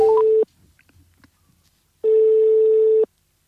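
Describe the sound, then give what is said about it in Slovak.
A phone's ringback tone as a call is placed again after the line was cut off, sounding twice, a steady electronic hum lasting about half a second and then a full second after a pause, with a few quick dialing beeps at the very start. “tak voláme naspäť Adama. Jej to zazvoní, keď je to zrušilo.”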